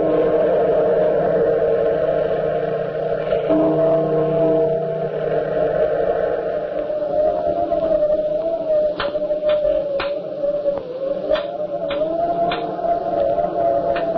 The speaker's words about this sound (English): Hear that? That tapping on the window pane? Yes, I know. Tonight it's the wind knocking the apple tree branches against the glass.